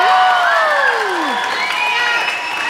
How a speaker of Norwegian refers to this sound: jeg hører. jeg hører at dere kan eh, klappe, og det setter jeg pris på.